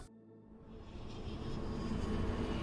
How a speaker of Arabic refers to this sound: طاقم من الطيارين ومهندسي الطيران والفنيين يصعدون إلى طائرة بوينغ ضخمة لتجربتها قبل أن تصبح رسمياً الطائرة الرئاسية للرئيس الصيني. تنطلق الطائرة في جولة تجريبية.